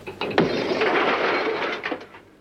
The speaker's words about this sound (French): Après, on le voit dans une casse automobile où il pète le pare-brise d'une hmm. voiture pour enregistrer le bruit, évidemment.